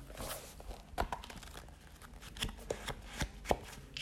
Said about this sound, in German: Ich fuchtel mit diesem Buch hier die ganze Zeit rum. Kann man das hören? Wartet.